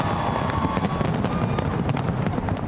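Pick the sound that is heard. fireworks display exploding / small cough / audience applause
fireworks display exploding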